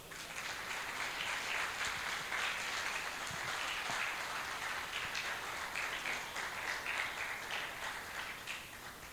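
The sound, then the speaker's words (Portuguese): A crowd applauds steadily, a dense wash of many hands clapping at once that holds at an even level from start to finish, with no voices rising above it. “Um aplauso para o Senhor.”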